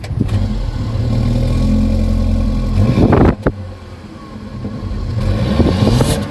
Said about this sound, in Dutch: Weet jij van welke auto je zojuist het geluid hoorde?